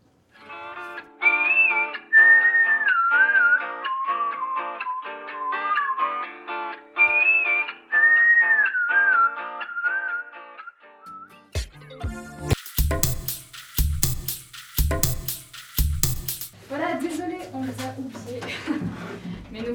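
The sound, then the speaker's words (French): A clear whistled melody glides over soft instrumental backing for about ten seconds as a short music break, then cuts abruptly into sharp bursts of clattering noise as two people arrive running into the studio, followed by people talking. “Alors, on se retrouve tout de suite après une petite pause musicale”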